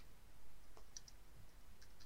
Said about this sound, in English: Oh, you're typing it.